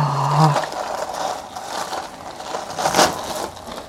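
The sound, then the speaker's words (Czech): Beads (korálky) rattle and clatter continuously after a girl strikes them with her hand, a dry, busy jangling that swells in two louder bursts, one near the start and one about three seconds in. No one speaks. “No, takhle mi vždycky do nich bouchne, víš, a ono to takhle chrastí.”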